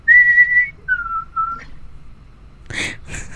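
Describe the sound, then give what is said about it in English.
A person whistles three short tones in a row: a clear, higher first note, then two lower notes that slide slightly downward. A brief breathy burst follows after a pause. “Um, the Kushtaka also emit a high pitched three part whistle in a pattern of low high low.”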